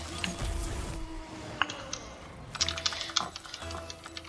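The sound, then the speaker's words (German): Rapid plastic clicks of game controller buttons being pressed, in irregular bursts with a brief pause, over a low background hum and no voices. “Ähm, ich glaube, mein Controller ist ein bisschen zu laut zu hören, aber es juckt doch auch keinen, oder?”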